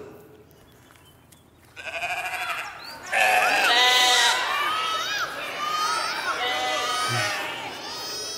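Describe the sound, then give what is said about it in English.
A flock of sheep bleating loudly, many overlapping wavering calls rising after a quieter start and continuing steadily, with a crowd-like chorus of voices from the herd. “That is sheep, not a goat.”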